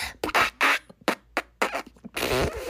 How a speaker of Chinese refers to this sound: 于是他又再放了一个长长的屁。